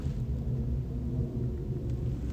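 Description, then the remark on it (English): A steady, deep rumble of an airplane passing overhead, droning evenly and fairly loud for the whole moment with no voices over it. “Those are some of the things that we have to know in order for us to ascertain and to be able to see and then to go up higher, like that plane. I'm hearing this over me.”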